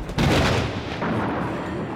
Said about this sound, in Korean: 천둥 외치는 거야, 갑자기?